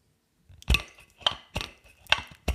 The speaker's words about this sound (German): Du darfst dir jetzt dein Bier öffnen